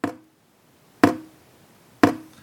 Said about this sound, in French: Alors, mhm. d'abord, des gouttes tombent. Hein, euh, euh, encore une fois, euh, vous imaginez, hein, il y a le filet qui tombe du, robinet, qui se brise en gouttes, et des gouttes qui tombent, et ça fait tam, tam, tam, tam sur, sur le son.